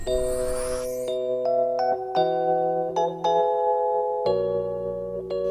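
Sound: bells ringing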